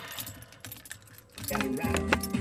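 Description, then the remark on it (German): A bunch of keys jangles and clinks, scattered rattles at first that grow busier and louder partway through, with a voice murmuring underneath. “Äh, so, hier ist der Schlüssel.”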